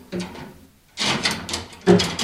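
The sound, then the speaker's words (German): A hanger rack holding clothes hangers is pulled out of a roughly 100-year-old wardrobe trunk from Fifth Avenue, New York, with a couple of rough sliding scrapes, ending in a sharp clack as it stops. “Der hat auch Kleiderbügel drin. Das ist dann geht man rausziehen und dann der Ständer.”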